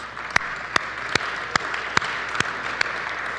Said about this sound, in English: I'd like to give him a special round of applause.